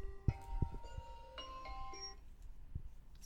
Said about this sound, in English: my alarm going off, meaning that I have to stop meditating and start podcasting.